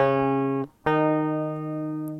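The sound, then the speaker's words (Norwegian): Two sustained notes played on a saz baglama, an instrument able to play quarter tones, as a demonstration; the second a whole tone above the first, separated by a brief pause; each tone holds steady and clear, played alone without any voices. “da har de dratt fram en saz baglama for å demonstrere, fordi at det er et instrument som kan spille kvarttone, da.”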